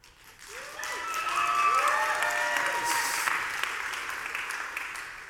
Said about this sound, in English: We have, yeah, she's worth clapping for.